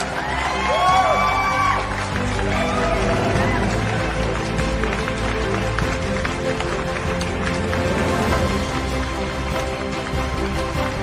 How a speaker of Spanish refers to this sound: Aplausos porque se graduó, se graduó. Se graduó otros aplausos, aplausos, más aplausos.